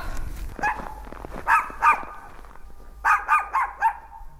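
A dog barks about seven times in two quick bursts, the sharp barks coming in short rhythmic runs over a faint low background rumble.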